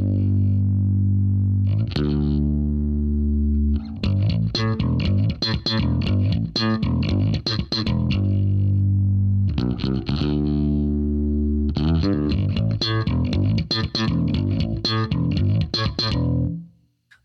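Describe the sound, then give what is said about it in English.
Solo electric bass playing a chorus section: long sustained low notes alternate with bursts of rapid, percussive slap-and-pop attacks, loud throughout with an effected, slightly distorted tone. “slows things down a little for the chorus, with some longer notes leading back into the slap pattern.”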